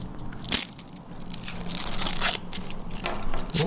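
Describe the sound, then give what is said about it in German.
A fortune cookie is cracked open near a microphone: a few sharp, crisp snaps spaced apart, with softer crinkling and crumbling noises filling the gaps between them, no voices. “Ich versuche ihn jetzt auch zu öffnen in der Nähe von meinem Mikrofon, damit man das Knacken vielleicht hört.”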